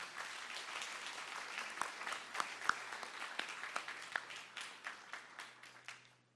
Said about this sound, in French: Et on va être encouragés ce matin parce que je crois que présenter un enfant à l'église, c'est une source d'encouragement. C'est une bénédiction. Et est-ce qu'on peut les applaudir chaleureusement